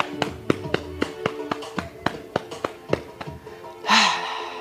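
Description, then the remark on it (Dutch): Hands slap and tap against the hamstrings, calves and inner legs in a quick, irregular series of sharp smacks during a body-tapping exercise, ending with a breathy exhale. “Hamstring. Kuiten. Het kletst heel lekker. Binnenkant benen.”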